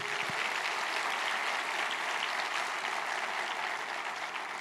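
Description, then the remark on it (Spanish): An audience claps together in sustained, dense applause for the Lord during a sermon, a steady bright wash of many hands lasting the whole stretch without talk over it. “¿Cuántos pueden dar un aplauso al Señor por eso?”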